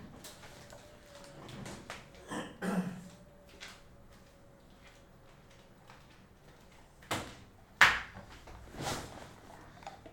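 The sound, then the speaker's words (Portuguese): A few scattered thuds of footsteps on a hard floor, spaced irregularly, with one heavy, loud step near the end, as a person returns to the microphone after fetching water and deliberately steps hard while putting the headphones back on. “Você viu que eu dei um passo muito forte enquanto eu coloco o fone aqui? Para que você pudesse ouvir eu voltando.”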